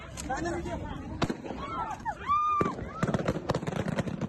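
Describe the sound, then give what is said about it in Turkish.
Sharp gunshots, fired into the air by Taliban militants to disperse a group of protesting women, crack out over a noisy crowd of shouting voices. One isolated shot is followed later by a quicker burst of several more, with a high shrill cry rising briefly in between. “Militanların kadınları dağıtmak için havaya açtığı ateş buzdağının sadece görünen kısmı.”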